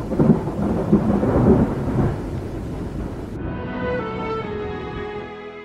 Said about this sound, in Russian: В эту секунду послышались отдаленные раскаты грома. Начиналась гроза.